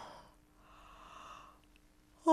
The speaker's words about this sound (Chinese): 他又连着打了两个哈欠，然后又睡着了。